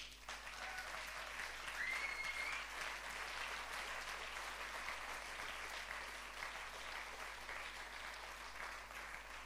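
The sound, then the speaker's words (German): An audience gives sustained applause to God during a sermon, a dense steady wash of many hands clapping at even loudness, with a few faint whoops or cheers briefly rising above it. “Lass uns mal Gott dafür einen Applaus geben.”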